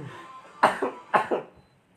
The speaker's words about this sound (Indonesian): aduh batuk lagi